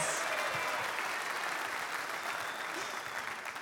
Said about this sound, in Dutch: Geef een hartelijk applaus.